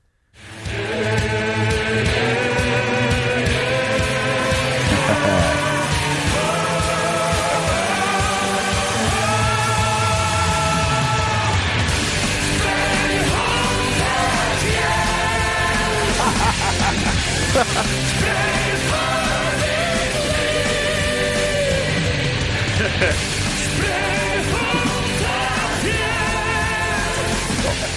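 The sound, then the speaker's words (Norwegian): A choir from Bodø belts out the final chorus in Norwegian, many voices holding long sustained notes over dense, steady accompaniment that stays loud for the whole half minute. “Ja som da synger Det her er siste refrenget, for her er det jo ikke på engelsk engang, det er på norsk.”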